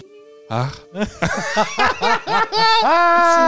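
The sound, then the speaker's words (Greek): A voice fakes a coughing fit: a quick series of about seven short, throaty, voiced bursts in a rough rhythm, ending in a longer drawn-out vocal sound. “Έχει στο βήχα να κόβεται, ναι, να μην το πιάνει.”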